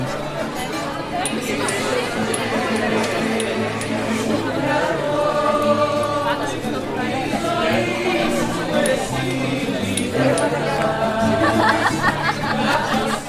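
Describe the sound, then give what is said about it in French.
A dense crowd chatters steadily, many overlapping voices forming a constant babble with occasional laughter, lively, a packed street crowd pressing against the bars in the Spanish Quarter of Naples, Italy. “La foule se presse contre les bars et dégorge Rivière Orduli.”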